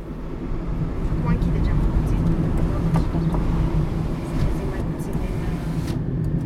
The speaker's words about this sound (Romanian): zgomotul străzii.